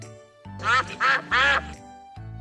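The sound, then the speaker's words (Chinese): Three loud, raspy duck quacks in quick succession, each short and nasal with a steady rhythm, over a low background hum. “我想，鸭太太在说：“谢谢变形警车救援队。”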